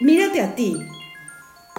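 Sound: alarm going off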